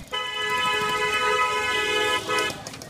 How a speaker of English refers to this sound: It makes Seattle's rush hour traffic look like a cakewalk. It's clogged.